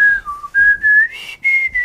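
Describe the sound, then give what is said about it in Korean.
A singer whistles a short song melody, as done when performing live, the clear pitched tone stepping between several held notes with brief breaks between phrases, no talking. “라이브로 부를 때 휘파람으로 이렇게 좀 부른 적은 있어요.”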